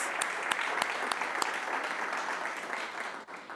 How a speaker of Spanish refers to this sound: Pero mientras podamos, que lo que hagamos sea para darle la gloria a Dios. Vamos a darle un aplauso a Dios.